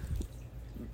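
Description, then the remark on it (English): A fish tank's water trickles and burbles steadily at low volume, a soft continuous murmur with a couple of faint drip-like blips, and no voices. “if you hear noise in the background sounding like water that would be my fish tank um, so don't mind that.”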